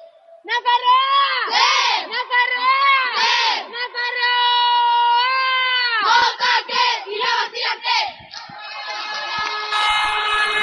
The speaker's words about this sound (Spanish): Bueno, pues escuchamos el grito de las chicas de Navarra, escuchamos ya el grito y las últimas indicaciones